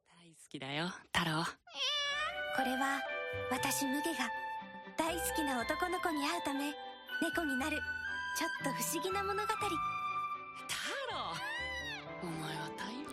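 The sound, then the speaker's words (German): Repeated loud cat meows, including long wavering rising-and-falling cries, layered over a busy background of other voices and sounds for the whole stretch. “Also der Hinti ist eine Katze.”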